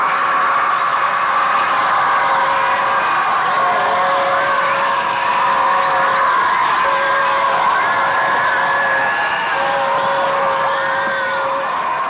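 A dense crowd of fans in the Netherlands screams and shrieks without pause, a loud, high-pitched wall of overlapping voices with whoops and cheers rising and falling, plus a steady whistle-like tone running through it.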